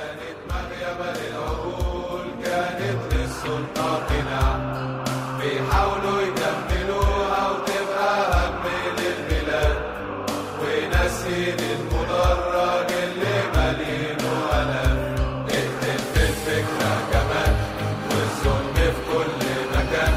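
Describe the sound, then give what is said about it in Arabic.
A large crowd of Al Ahly football ultras sings a stadium song together in unison, a song about a massacre, loud and sustained for the whole stretch, with steady beats that sound like drums keeping the rhythm. “بدل ما يخافوا الألتراس حولوا المجزرة لذكرى وبعد وقت قصير على اللي صار قدموا روايتين للأحداث بأغنية غناها الجمهور بالملعب وبالشوارع”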